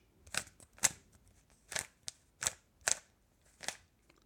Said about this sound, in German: Und das war das Geräusch des Rubiks-Würfels, auch auf Deutsch Zauberwürfel genannt.